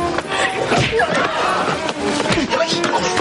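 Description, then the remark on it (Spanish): Sharp slapping thuds of punches landing in a fight, as a man punches another who confronted him and a police inspector is knocked down by another blow, loud, with agitated voices and shuffling noise around the blows. “Alfonso le enfrenta y el bombilla le atiza un puñetazo.”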